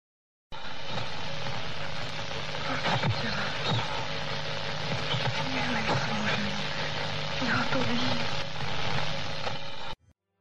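Steady, hissing tape noise fills about ten seconds, with faint, garbled voice-like murmurs buried in the static that never form clear speech. It is an electronic voice phenomenon recording by Jürgenson, made in his garden while trying to record birdsong; the voice is said to say 'Friedel, my little Friedel, can you hear me?'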